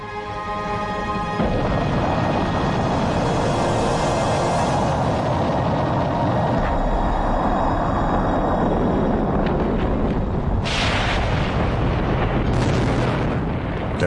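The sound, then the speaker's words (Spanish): A Vanguard rocket carrying a US Navy satellite explodes on the launch pad after rising only about one metre off the ground, erupting into a sustained deep, roaring rumble, with a fresh blast surging in partway through; loud and dense, with no voices. “elevarse solo un metro del suelo, lo único que sobrevive a la explosión es el satélite.”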